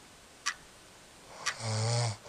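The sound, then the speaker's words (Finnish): A single loud, rumbling snore from someone right next to the listener, preceded by two faint clicks in an otherwise quiet setting. “miksi toi kuorsaa tuossa vieressä?”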